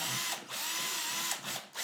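A power drill whines steadily, its pitch dipping briefly a few times as the bit bites into wood while drilling an extra hole, with no talking over it.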